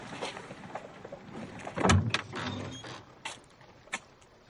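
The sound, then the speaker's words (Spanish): A building door is unlatched and pulled open: a sharp mechanical clunk followed by a creaking swing, then a couple of lighter clicks as it settles, over a quiet background hiss. “Baja unas escaleras y abre la puerta del edificio.”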